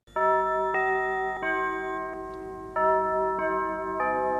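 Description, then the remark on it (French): The very first Europe 1 radio station jingle chime, composed by jazz conductor Raymond Lefebvre in 1955: bright, bell-like tones ring out in two phrases of three notes each, separated by a brief pause, loud and clear with no voices. “Oui, c'est un chef d'orchestre de jazz, Raymond Lefebvre, qui compose le carillon d'Europe numéro 1 en 1955.”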